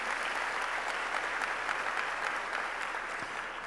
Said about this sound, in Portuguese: Pode dar uma salva de palmas para Jesus.